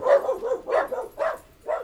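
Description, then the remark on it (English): A dog barks repeatedly in a quick, uneven rhythm, about five sharp yapping barks with brief gaps between them, and no one speaking. “My dogs are real protectors.”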